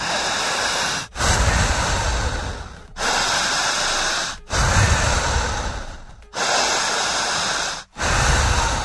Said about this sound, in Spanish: Fuerte la respiración, fuerte